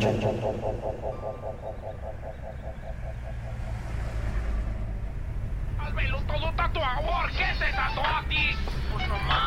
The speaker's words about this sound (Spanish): El tráfico del freeway te despierta de tus cavilaciones.